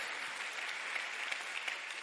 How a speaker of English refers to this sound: Can you give the Lord a round of applause for that? Your faith.